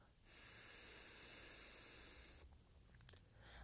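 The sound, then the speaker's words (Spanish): During a breathing exercise, one side of the nose is held closed and, after a held count of five, a single steady exhale is let out through the other nostril. It is an airy hiss lasting about two seconds before it stops, followed by a faint click in the quiet. “Por ejemplo, podemos taparnos un lado de nuestra fosa nasal. Mantener uno, 2, 3, 4, 5 y soltar por el otro lado.”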